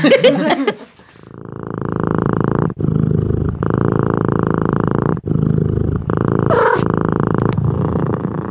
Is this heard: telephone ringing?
no